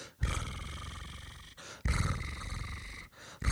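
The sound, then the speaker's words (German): A person imitates a cat's purr with a low, rumbling throaty growl, delivered in two long bursts with a brief breath between them and a third starting at the end. “Ähm, übrigens, wenn ich äh, Geschichten über Katzen vorlese meinen Kindern und die schnurren, ja. ähm, dann mache ich das Schnurgeräusch immer so, äh, äh, so nach.”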